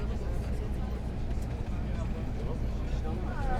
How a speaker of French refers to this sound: Après l'émission enregistrée dans les studios de Radio France. Bah, ça c'était bien. Retour en bus avec les élèves de 3 Média.